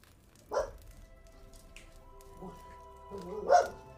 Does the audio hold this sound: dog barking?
yes